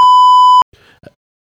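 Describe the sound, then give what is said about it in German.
A loud, steady electronic censor bleep tone over spoken words lasts about half a second, cutting off abruptly, followed by a brief faint murmur of speech fragments. “Warte, äh, wir können es nochmal, nächstes Mal machen wir das dann einfach, dass wir drüber piepen, okay? Probier's nochmal.”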